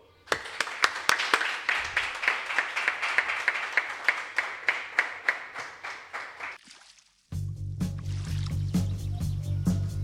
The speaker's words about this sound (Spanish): Un fuerte aplauso para donde quiera que esté Sancho, por favor.